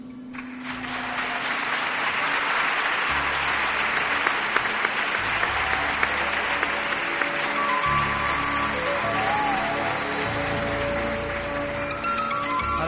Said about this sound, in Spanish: suena esa lluvia metálica de …